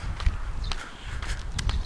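Footsteps walk at a brisk, steady pace on a paved road in a quiet residential area with little traffic, each step a crisp scuff, with faint outdoor ambience and no voices.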